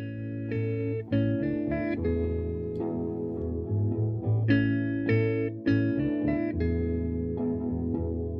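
A 1960s pop rock song plays on its own, with bright chiming guitars, a steady bass line and drums keeping a moderate beat, full and continuous throughout with no voices.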